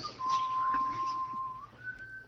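A person whistles a long, steady tone that holds, then jumps up to a higher held note, fairly close and clear over faint background noise.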